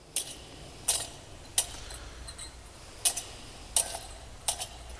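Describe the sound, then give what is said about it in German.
Chains of a swinging church incense thurible, as used in church services, clink in sharp, bright metallic bursts, about six of them in a loose swaying rhythm, some doubled, fairly quiet with no talking. “Das ist ein Weihrauchfass, wie es im Gottesdienst verwendet wird.”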